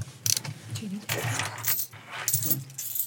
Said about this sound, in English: A veure, estic buscant ja monedes, no? Una pua, molaria.